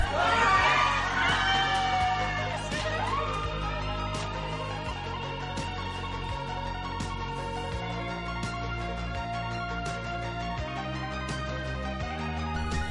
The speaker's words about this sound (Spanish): La habitación se llenó de luz amarilla y antes de que se dieran cuenta de que sostenía a su esposa muerta en los brazos, los invitados a la fiesta de cumpleaños gritaron a coro